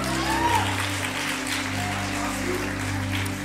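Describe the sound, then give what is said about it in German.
A church audience applauds steadily for a few seconds, a dense wash of clapping at a constant level, with a low hum and faint background tones beneath it. “Applaus für”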